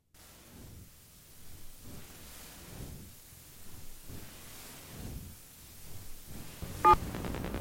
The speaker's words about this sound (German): Die musikalischen Zellgruppen in diesem Stück bestehen aus Wortgruppen immer wiederkehrender Stimmen und aus den Geräuschen der Telefone der Anrufer, des Auflegens, der Piepstöne des mobilen Abhörens, der Nebengeräusche der Telefonleitungen.